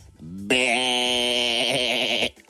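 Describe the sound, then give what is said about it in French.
A person's voice imitates a sheep's bleat, one long loud wavering cry held for nearly two seconds, nasal and quavering, preceded by a brief low vocal sound. “tu peux arrêter de bêler, s'il te plaît”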